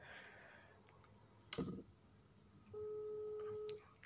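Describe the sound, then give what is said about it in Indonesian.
A phone call being placed: a few soft clicks and a brief burst of dialing, then a steady electronic ringback tone holds for about a second before a final click. “oke kita telepon ya”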